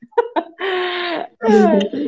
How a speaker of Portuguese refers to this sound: é um bebê. Fofura.